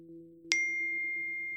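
A single bright electronic ding of a mobile phone message notification strikes sharply and then rings on as a steady sustained tone, with a low hum underneath throughout.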